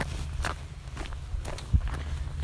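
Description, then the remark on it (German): A person walks outdoors along a path beside a brook that is barely flowing, each footstep a soft scuffing thud at a steady walking pace, about half a dozen steps over a low, constant rumble, with no one talking. “Ah, ich laufe immer noch, ich laufe immer noch, ich laufe immer noch.”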